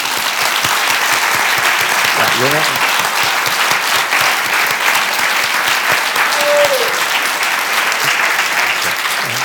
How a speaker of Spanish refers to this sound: Bueno, Vamos a animarle con un aplauso.